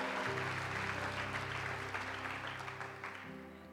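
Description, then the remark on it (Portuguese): A church audience claps together in dense, steady applause in worship of the name of the Lord, carried over sustained low keyboard chords, the clapping gradually easing and fading toward the end. “Aplauda o nome do Senhor e adore.”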